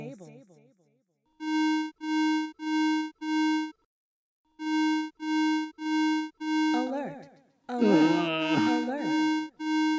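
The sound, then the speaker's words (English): A security alarm sounds loud, pulsing in two bursts of four evenly spaced electronic beeps, then continuing as a voice announces unauthorized activity in the stables over the last beeps; a brief voice also precedes it. “Alert! Alert! Alert! Unauthorized activity in stables.”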